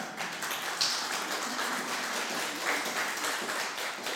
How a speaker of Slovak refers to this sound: Takže hneď si to všimli a ja si myslím, že je to pravda. Myslím si, že, že to zaslúži potlesk, že?